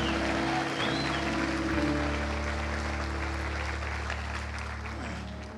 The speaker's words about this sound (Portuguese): Se você crer, dê um salva, salva de palmas a Jesus e um glória a Deus, aleluia.